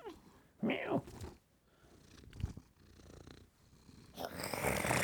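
A cat purrs in a steady rumbling rhythm, with a brief rising meow-like vocalization early on and louder, breathier purring swelling near the end.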